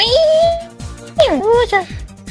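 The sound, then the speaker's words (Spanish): A person vocally imitates cats yowling and fighting over females, with a long rising wail followed by sharp, swooping screeches, loud over a faint rhythmic background beat. “ya tengo los gatos, ya los gatos están volviéndose locos ya.”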